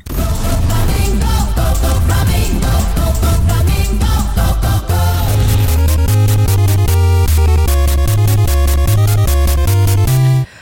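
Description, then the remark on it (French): A loud, harshly distorted musical jingle, a host's show theme, plays alone for about ten seconds, with a thumping bass line and choppy, rhythmic chord stabs that grow more insistent in the second half. “Il me gosse ton thème, Vandal.”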